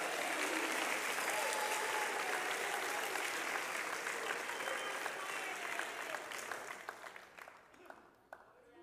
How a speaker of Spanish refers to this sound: Aplaudo fuertemente.